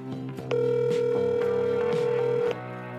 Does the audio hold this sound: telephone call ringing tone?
yes